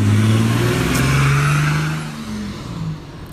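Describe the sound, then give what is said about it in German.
A powerful car roars past on the street beside a burger restaurant, its deep engine rumble rising and then fading as it moves away, with a steady droning tone throughout and no voices. “Hier fährt gerade ein fettes Auto dran vorbei.”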